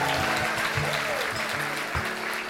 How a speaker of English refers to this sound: Give the Marys a round of applause, everybody.